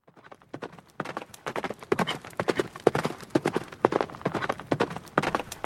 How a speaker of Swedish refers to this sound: I bakgrunden kunde man höra en häst galoppera och mot en vacker solnedgång kom Link ridandes med svärdet i högsta hugg.